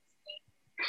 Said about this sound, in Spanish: Eh, aquí estamos, este, no sé si oye un maullido, es que tengo una, gata que está afuera y quiere entrar.